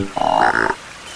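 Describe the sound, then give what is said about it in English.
One short, buzzy croak from an Australian green tree frog, rising slightly in pitch partway through, heard alone against a quiet background. “I'm an Australian green tree frog.”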